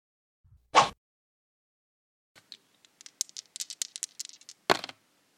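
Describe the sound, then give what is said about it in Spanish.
Dice rattle and clatter across a hard surface in a quick burst of small clicks, framed by a sharp knock at the start and another near the end, fairly loud with no talking. “Hemos lanzado los dados”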